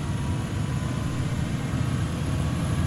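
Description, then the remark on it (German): A helicopter's steady whirring drone with a low, throbbing rumble, growing more intense and then slowly fading as a man leaves in it, with no voices. “Mann, das ist ein Helikopter, der Typ verpisst sich.”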